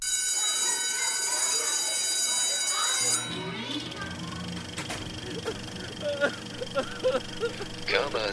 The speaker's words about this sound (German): Und dafür gibt es doch eigentlich auch einen Jingle, den ich jetzt suchen muss und nicht finde. Aber ich spiele ihn jetzt ein.